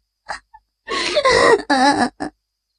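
A woman crying loudly in wavering, sobbing wails, preceded by a couple of short gasping breaths and ending with a brief choked sob.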